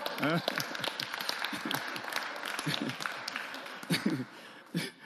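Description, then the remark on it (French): A crowd breaks into steady, dense applause that fills the whole stretch, with voices calling out and talking over the clapping at moderate loudness. “Non mais applaudissez quand même, c'est quand même, il a fait fort là.”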